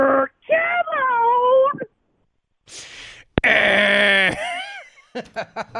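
A cat meows several times: drawn-out, wavering calls and one long wailing yowl, followed by a quick run of short, chirpy mews.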